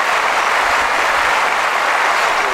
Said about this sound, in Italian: e quindi veramente devo devo dirti che probabilmente ti, ti meriti un applauso. Bello applauso.